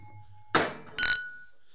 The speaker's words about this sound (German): dann können wir jetzt auch endlich mal anstoßen.